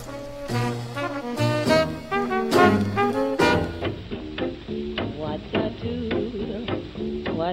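Jazz big band music plays with punchy horn stabs and harmonized brass lines over a steady rhythm, sounding like an old recording with a muffled, narrow top end and faint surface crackle.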